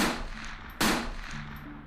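two gunshots

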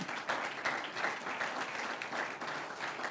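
audience applause

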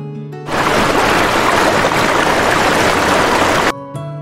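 flowing river water

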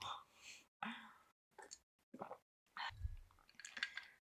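sipping hot water

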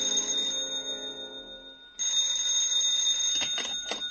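telephone bell ringing loudly

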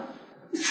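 sneeze

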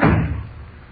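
door slammed shut

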